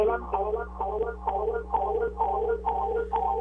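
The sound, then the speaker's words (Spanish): Audio feedback from a caller's radio: a muffled, echoing wash of garbled voice bleeding back over a phone line, riding on a steady low electrical hum for several seconds. “Tienes que bajarle radio porque porque tengo retroalimentación.”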